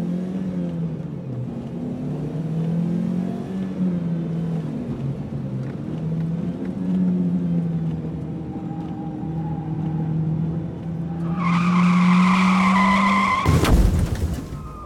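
A car engine revs hard with rising and falling pitch, then tires screech loudly in a long skid before a sharp burst of noise near the end. No one speaks.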